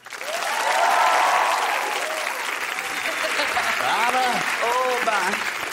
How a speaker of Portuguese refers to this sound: atriz, cantora, cantora e atriz. Aplaudam Simone Mazer.